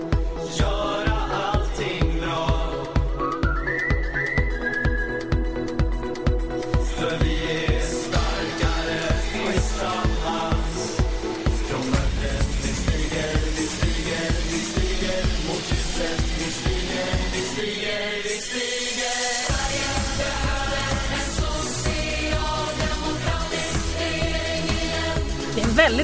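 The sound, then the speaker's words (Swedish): The election campaign song of SSU, a Swedish political youth league, plays loud: upbeat, driving pop with a steady thumping kick drum and dense bright layers, briefly thinning out near the end before the full beat returns. “Vi har även eh, ungdomsförbunden har kommit med vallåtar och vi ska spela mm.”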